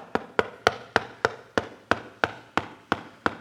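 A steady series of about eleven sharp knocks on wood, evenly spaced and fairly close, each with a hollow, resonant ring and a quick decay. No one speaks.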